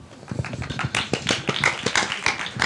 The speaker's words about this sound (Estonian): mina teeksin neile tegelikult väikse aplausi.